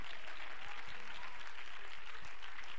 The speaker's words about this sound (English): Oh, I feel like just clapping my hands and praising the Lord a little